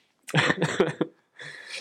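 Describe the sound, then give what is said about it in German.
A fairly loud burst of several rapid coughs run together, then a brief pause and a raspy, breathy exhale as the throat settles. “ich, kann nicht, ich kann nicht so richtig, weil ich ja husten muss.”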